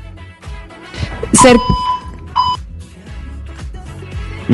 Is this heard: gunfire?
no